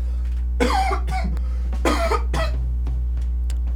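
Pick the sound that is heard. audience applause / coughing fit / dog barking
coughing fit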